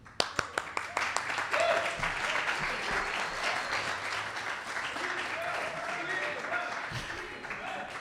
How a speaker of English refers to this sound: So, uh, round of applause,